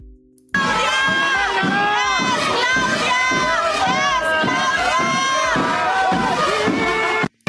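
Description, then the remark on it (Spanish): A large crowd shouts a chant in unison at a woman, "Es Claudia, es Claudia", loud, with a steady repeating rhythm of many voices carrying on for several seconds before cutting off. “¿Cómo le van a gritar a la señora? ¿Cómo le van a gritar?”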